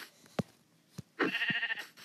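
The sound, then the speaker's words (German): A sheep in a video game lets out a single wavering bleat, loud, after a few sharp thuds of hits landing on it; it takes two hits to kill the sheep. No one speaks. “Ein, ein Hit auf einem Schaf ist nicht tot. Zwei Hits. Two Hits, ein Schaf.”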